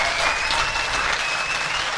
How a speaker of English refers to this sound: And that is their round of applause, each wearing Walkenhorst Motorsport overalls and all matching actually, which can't be said for the other the other drivers on the podium.